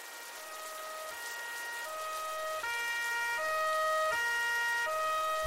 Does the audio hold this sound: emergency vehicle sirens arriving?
yes